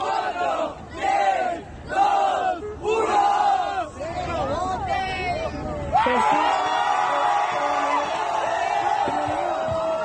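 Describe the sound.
A large crowd of LGBT activists awaiting a Senate vote on a comprehensive HIV response law chants in loud rhythmic bursts, then breaks into sustained cheering and shouting, a dense, continuous roar of many voices.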